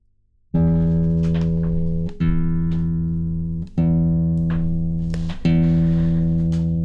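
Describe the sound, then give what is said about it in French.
A guitar is played alone by a woman, fairly loud: four chords strummed slowly, each ringing out for about a second and a half before the next. “Mais elle a pris sa guitare, alors ben vas-y”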